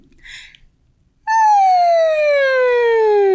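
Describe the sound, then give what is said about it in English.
A loud hummed voice starts at the very top of its range and slides smoothly and steadily down to its lowest pitch in one continuous glide, following a moment of near silence with a brief soft rustle. “you start at the very highest end of your range”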